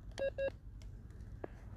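Two quick, mid-pitched electronic beeps from a carp fishing bite alarm on a lake sound in fast succession over a steady low rumble, followed by a soft knock and no talking.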